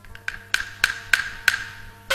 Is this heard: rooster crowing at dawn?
no